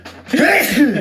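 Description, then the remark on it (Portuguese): A single loud sneeze: a quick breathy intake followed by a sharp, explosive burst that trails off, with no one talking over it. “Saúde.”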